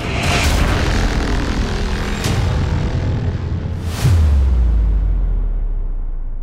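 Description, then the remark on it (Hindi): A heavy door set firmly in a wall grinds slowly closed over a low, rumbling drone, then shuts with a single deep boom that lingers and fades. No voices are present. “वो दरवाजा जिसे नीचे गिरते देखा था उसने अपनी आंखों से फिलहाल गिरा हुआ नहीं बल्कि दीवार में मजबूती से लगा हुआ था और धीरे धीरे चरमराता हुआ बंद हो रहा था”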